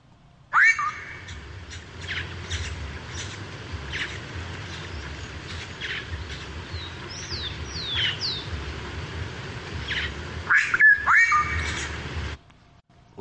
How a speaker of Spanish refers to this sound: nosotros tenemos solo un juego de cuerdas vocales. Las aves, en este caso, para simplificar la idea, esta familia de aves, de los mochileros, tienen dos juegos de cuerdas vocales y los pueden usar indistintamente, al mismo tiempo